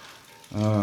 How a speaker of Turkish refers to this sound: Ay. Yağmur çok hoşuma gitti ya. Abi yağmur yağdığı zaman özellikle evde olmayı o kadar seviyorum ki.